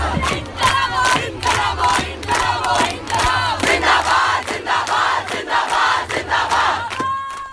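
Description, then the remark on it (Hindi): A large protest crowd of students, teachers, social activists and people of all ages chants slogans at Jantar Mantar in central Delhi, in loud, rhythmic unison, voices rising and falling in repeated bursts with a steady low rumble underneath throughout. “कुछ इसी तरह से गूंज रहा था सेंट्रल दिल्ली का जंतर मंतर जहां सिर्फ कॉलेज के छात्र टीचर्स और सोशल एक्टिविस्ट ही नहीं बल्कि हर उम्र धर्म और जेंडर के लोग आए थे”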